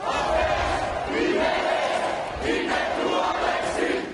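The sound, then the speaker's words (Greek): A large crowd of school students, university students and collectives chants in unison at a protest march in central Athens, Greece, rhythmic shouted phrases rising and falling in loud waves over a constant dense roar of many voices. “μαθητέ, φοιτητέ και συλλογικότητε πραγματοποιούν συγκεντρώσει στο κέντρο τη Αθήνα”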